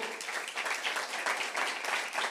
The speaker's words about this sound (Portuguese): Dê um aplauso forte para o Senhor.